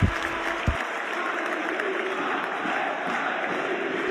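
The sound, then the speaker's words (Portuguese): A large stadium crowd at the Allianz Riviera in Nice sings the unofficial anthem of the city and region a cappella, thousands of voices merging into a dense, steady wall of sound that carries on unbroken and fairly loud, with no one talking. “Em pano fundo, conforme já devem ter reparado, estamos a ouvir uma versão a capela de Nissa La Bella”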